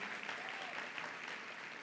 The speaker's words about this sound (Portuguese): Não, vamos aplaudir o pessoal de música aqui, né? Fizeram um bom trabalho.